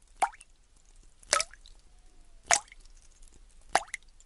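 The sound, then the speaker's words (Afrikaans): Water drips steadily from two small leaks into two buckets, four distinct plopping drops falling at a slow, even pace about a second apart, clear against a quiet background with no voices. “Ek sou een emmer sit onder die een gaatjie en die ander emmer onder die tweede gaatjie sodat hulle elkeen 'n geluid maak en dan gaan dit klink soos musiek.”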